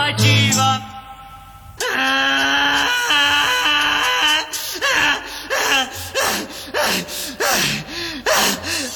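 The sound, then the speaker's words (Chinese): A voice imitates a donkey braying as part of a song: after a long, held, wailing note, loud rhythmic hee-haw cries rise and fall repeatedly, each harsh bray separated by gasping breaths. “我刚刚想说话，然后听到前面那段驴叫，简直根本插不进话来。”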